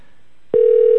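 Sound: telephone ringback tone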